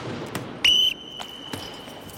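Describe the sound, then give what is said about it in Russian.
An ice hockey coach's whistle gives one short, loud, shrill blast that rings out briefly during team practice in an ice arena, with a few scattered sharp knocks and thuds before and after. “Тарасов поднимает взгляд на Валеру, берет в рот свисток”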